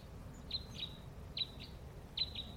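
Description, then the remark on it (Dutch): Sharp, metallic 'klip, klip, klip' flight calls from three crossbills ring out overhead in three quick paired bursts, clear over a low rumbling background, with no one speaking. “kruisbekken, kruisbekken. Hier. Die drie. Je hoort dat klip, klip, klip.”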